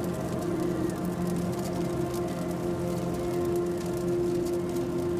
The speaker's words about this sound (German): Das Knistern der heißen Glut verschmilzt mit dem Rauschen des Meeres.